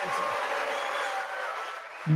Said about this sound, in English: Mixed crowd reactions. And you know, this is the great thing about this country booing is allowed, but it doesn't change the truth.